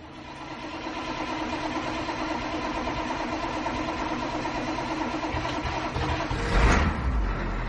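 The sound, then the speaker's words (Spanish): A large bus engine turns over and settles into a steady, rumbling idle, then swells briefly louder near the end as it revs, with no voices. “El autobús.”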